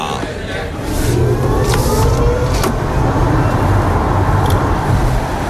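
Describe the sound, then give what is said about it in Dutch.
A Hyundai Kona Electric car driving on a test drive, with a steady low rumble of tyres and road noise and no engine roar, plus a few faint clicks and brief high swishes along the way. “die genoot van het geluid... of misschien wel het gebrek aan geluid van die Hyundai Kona.”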